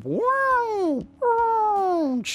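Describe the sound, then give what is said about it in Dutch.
A voice imitates the mechanical sliding door sound from the video game Doom: two drawn-out, humming vocal swoops, each about a second long and sagging in pitch at the end, followed by a brief breathy hiss. “Iedereen kent dat deurgeluidje dat...”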